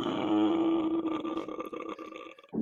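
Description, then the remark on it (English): A person imitates a zombie groan by saying the word "home" while breathing inwards: a low, guttural, croaking drone lasting over two seconds, rough and burp-like, trailing off into a brief voiced tail. “that's how you do a professional zombie voice.”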